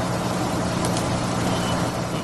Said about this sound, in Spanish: Este es el autobús del colegio.